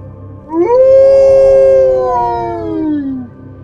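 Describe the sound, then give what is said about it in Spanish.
A man lets out a single long, loud howl of rage and pain that rises sharply, holds a strained, wavering pitch for a few seconds, then slides downward and fades out, sounding anguished and furious, with no talking around it. “Estaba a punto de sacudirlo para que reaccionara, cuando dejó escapar un aullido lleno de rabia y dolor.”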